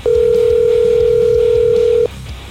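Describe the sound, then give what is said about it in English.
The Ollie's Bar and Grill Soundstage phone system rings with one steady electronic tone lasting about two seconds, loud, over a faint low rumble of background noise, then cuts off abruptly. “Ollie's Bar and Grill Soundstage Phone System. It's cranking with the rings.”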